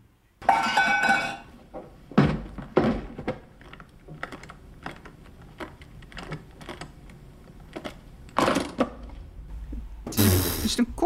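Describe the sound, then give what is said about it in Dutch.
A small metal briefcase from the film Pulp Fiction being handled and opened: a run of sharp metallic clicks and clatters at an uneven pace, framed by a scraping rush at the start and a louder hiss near the end, with no talking. “koffertje wat open gaat. Ja, dat is een goede. Zo'n metalen koffertje.”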